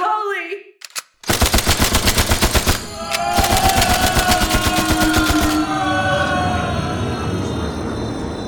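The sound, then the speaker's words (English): A rifle fires 20 rounds of hollow-tip bullets in two loud, rapid bursts in close succession, the shots cracking in a steady automatic rhythm before giving way to a lingering metallic ring and fading echo. “The rifle in his hand was smoking, having just released 20 rounds of hollow tip bullets into Elgar.”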